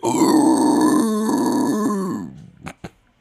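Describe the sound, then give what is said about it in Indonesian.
A person imitates a pig with a long, rough, nasal grunting sound held for about two seconds, followed by two short snorting bursts, fairly loud with no other talk. “tapi itu kan suara babi ya, alias bagong”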